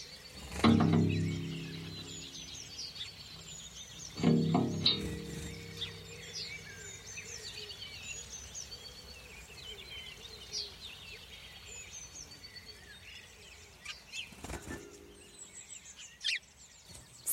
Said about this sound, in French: Le prix découverte Pierre Schaeffer adoube Birds and Wires des Français Mélia Roger et Grégoire Chauveau sur le bruit des oiseaux autour d'un point d'eau au petit matin.